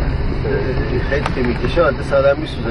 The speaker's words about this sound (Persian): صداشون رو میشنوید آدما دارن ماهی میگیرن یه طرف شمال غرب آره.